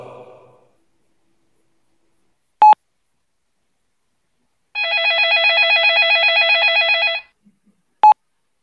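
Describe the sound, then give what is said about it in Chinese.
A telephone hang-up tone: a sharp single electronic beep, then a bright warbling trill lasting a couple of seconds, and one more beep. There is no talking, only a faint breath at the start. “我还有事，先挂了。”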